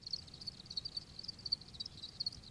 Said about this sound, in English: And then after about five weeks, once they reached sexual maturity, then like my whole apartment was full of cricket sounds. Once they start chirping, it's just like the whole space changes.